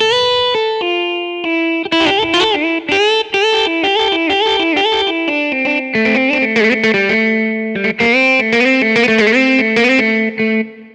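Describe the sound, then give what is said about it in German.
A distorted electric guitar plays a sustained, driving riff of chords and single notes, continuous and loud for about eleven seconds, with no voices. “wieder so eine schöne angezerrte Gitarre.”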